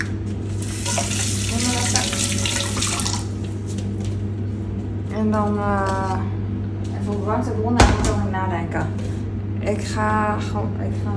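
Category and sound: household object, water running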